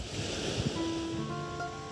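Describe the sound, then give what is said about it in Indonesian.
Ocean waves surge and wash steadily at dusk in a broad, continuous rush, with faint tonal hums threading through the surf and no one talking. “Suara ombak mulai bernyanyi.”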